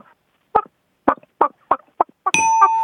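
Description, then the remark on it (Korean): A person imitates a chick growing into a chicken, clucking with a series of short, punchy clucks at uneven intervals, fairly loud. A bright bell ding cuts in at the end and rings on. “예, 그 병아리가 커서 닭이 된 거까지 어.”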